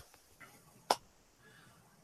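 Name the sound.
soft golf clap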